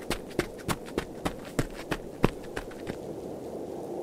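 Quick, evenly spaced running footsteps of a person running toward an entrance gate, about nine or ten sharp impacts at a brisk pace, then fading out as the runner moves away.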